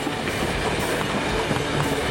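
A train picks up speed, heading from a side track toward a rail yard's entry switch, its wheels clattering steadily over the rails in a dense, continuous rumble with faint rhythmic clicks. It sounds fairly loud, with no voices.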